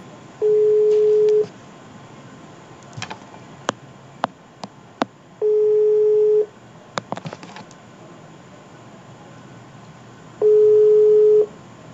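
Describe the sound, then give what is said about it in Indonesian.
A phone ringback tone sounds three times, each a steady mid-pitched buzz lasting about a second and spaced several seconds apart, with scattered sharp clicks and faint beeps from dialing in between. “Kita langsung saja ya ke nomor telepon”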